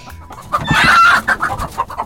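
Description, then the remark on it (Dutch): Chickens cluck in a startled burst, a loud flurry of squawks around the middle followed by several quicker, shorter clucks. No one speaks. “Ja, hij, eh, eh, hij maakt kippen aan het schrikken.”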